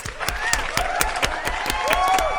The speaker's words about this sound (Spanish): Así que, por favor, amigos, ayúdenme a dar la bienvenida con un fuerte aplauso a nuestra querida